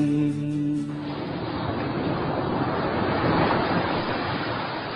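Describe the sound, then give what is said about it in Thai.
Steady roar of ocean surf washing onto Sai Kaew Beach in Thailand, loud, with a brief tonal musical note fading out in the first second. No voices. “ถ้าเอาเสียงคลื่นที่หาดไซแก้วเข้าเครื่องแปลภาษา เขาคงจะบอกเราว่า มาเที่ยวที่นี่สิ หาดทรายขาว น้ำทะเลใส รอคุณอยู่แล้ว”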